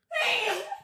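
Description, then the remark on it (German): A single loud sneeze bursts out with a strained, voiced, breathy quality, lasting under a second before cutting off abruptly. “ich habe Freunde, die schreien beim Niesen”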